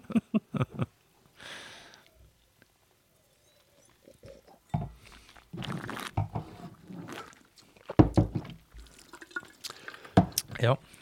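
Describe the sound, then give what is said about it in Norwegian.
Wine is slurped and spat out after tasting, during a wine tasting, in a few wet, splashy bursts with dripping liquid sounds between them, mixed with brief voices and mouth noises. “Vi spytter vinden ut, bare sånn at ja, i tilfelle dere lurer på det.”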